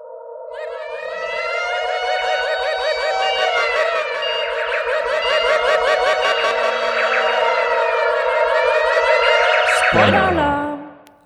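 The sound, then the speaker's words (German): A loud, sustained alarm siren sound effect, used as a spoiler alarm, wails for about ten seconds, its pitch wavering up and down with a fast pulsing warble, then cuts off with a quick downward sweep. No one speaks over it. “So, das wäre jetzt mein Kompromiss und würde sagen, jetzt ist mal Zeit für den Spoiler-Alarm.”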